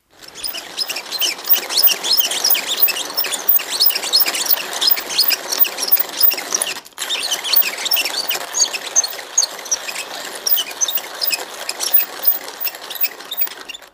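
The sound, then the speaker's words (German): An old hand-crank coffee mill, bought in a junk shop, being turned steadily, a continuous gritty, crunching rasp with a repeating rhythm, briefly interrupted halfway through before grinding resumes. No voices. “Das ist eine alte Kaffeekurbelmühle, die ich äh, im äh, Trödelladen gekauft habe.”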